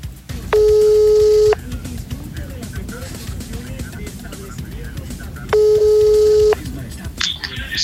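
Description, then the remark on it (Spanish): A surprise telephone call is being placed: the line rings twice, each steady ring tone lasting about a second and spaced several seconds apart, heard over a low, murmuring background hum. “Pues vamos a hacer una llamada sorpresa que tenemos al teléfono.”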